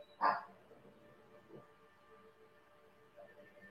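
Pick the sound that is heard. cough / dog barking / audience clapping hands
dog barking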